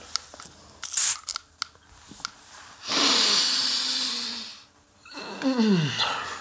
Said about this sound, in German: Da rieche ich Seife. Da rieche ich. Da rieche ich Lösermittel. Und, und das Riechen fällt mir schwerer. Das heißt, schwere Anteile. Probier das auch mal aus. Ne? Bitte und gönn dir deine Sprühnebel-Aktion.